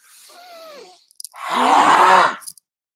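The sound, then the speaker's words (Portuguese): A voice makes two loud, forceful exhalations: a shorter breathy huff first, then a longer, stronger groaning blast of breath, with no speech, made by a surfer in the water beside a rival surfer. “Dar umas expiradas fortes, fazendo barulho do lado dele.”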